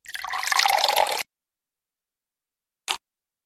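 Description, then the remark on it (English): A loud, hissing rush of water from the Pokémon Lapras's water attack gushes for about a second and cuts off abruptly; after a pause of silence, a single short splash-like drip lands. No one speaks. “Lapras, use water cup.”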